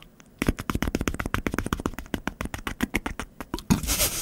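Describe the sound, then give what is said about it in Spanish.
A helicopter imitated with cupped hands: a fast, steady series of hollow, thumping pats, about eight per second, running for roughly three seconds before ending in a brief burst of rustling noise. “Un amigo podía hacer un helicóptero. A ver si me sale, mira.”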